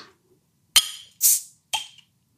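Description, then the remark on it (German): A bottle of Pina Colada Milkshake IPA from Alemania being opened: a sharp metallic clink, a brief fizzing hiss of released gas, then another bright clink, with no talking. “wenn man ja. so eine Bierflasche aufmacht, dann kommt am Anfang so ein, ein Nebel”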